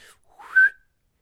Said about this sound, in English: And Hanukkah Harry said, Your wish is my command. And he whistled again,